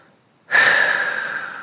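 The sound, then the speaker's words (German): A single deep, audible breath begins abruptly after a brief quiet moment, a broad airy rush that holds steady and slowly fades. It is fairly loud, with no talking. “Und wir atmen uns dadurch und wir hören uns auf, an Schuld festzuklammern”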